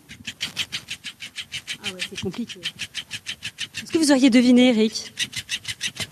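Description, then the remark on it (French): A mechanical fish toy makes a fast, steady rasping, a regular train of scratchy clicks running from start to finish, while people talk over it partway through. “Et là, euh, attention, tenez-vous bien, c'est un poisson. C'est le son d'un poisson.”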